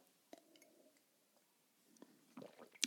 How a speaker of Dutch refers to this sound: Ik mag niet hoesten, ik moet gewoon drinken.